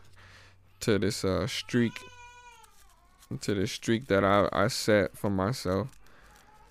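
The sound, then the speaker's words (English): A baby boy lets out one drawn-out, wavering wail that slides downward in pitch, heard at moderate volume in a brief pause between stretches of a man talking. “and let and let his cry be the soundtrack to this to this.”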